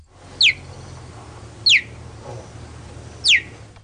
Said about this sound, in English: and you would think it's a bird, right? You really and truly would. But it's not actually a bird. This is a cheetah. A cheetah. Yeah? Not only is it the fastest land animal in the world today, but um, it also sounds like a bird.